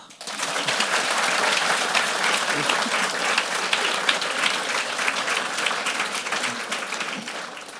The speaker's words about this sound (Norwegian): så klapp litt for dem, da.